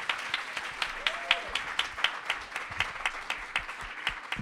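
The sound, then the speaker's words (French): An audience applauds steadily to open a live session, welcoming the host and guests, many hands clapping in a dense, continuous patter at moderate volume with no voices standing out. “Donc, euh, bah, je vais vous demander juste de l'applaudir, ainsi que ses invités, pour démarrer ce deuxième live.”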